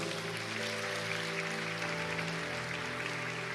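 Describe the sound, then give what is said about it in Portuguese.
A crowd claps for Jesus in a steady, dense, continuous wash of applause, with sustained musical tones held underneath throughout. “Meu Deus, aplauda Jesus.”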